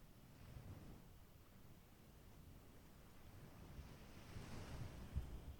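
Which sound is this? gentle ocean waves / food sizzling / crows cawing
gentle ocean waves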